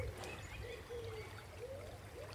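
Soft, steady trickling of water at a low level, a gentle continuous babble without distinct drops, quiet throughout.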